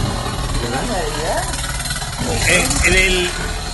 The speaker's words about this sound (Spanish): una licuadora, ¿verdad? Sin chingarse.